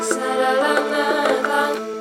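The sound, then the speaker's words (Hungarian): Two violins sustain a steady drone on an open fifth at the start of a song's verse, a bagpipe-like bowed chord with faint rhythmic bow pulses, moderately loud, with no voices. “Itt csak egy alap ö, hangot, egyfajta ö, dudás ö, kvintet tart a két hegedű, majd aztán ugye lelép az akkordmenetnek a második akkordjára, majd aztán a harmadikra visszalépünk.”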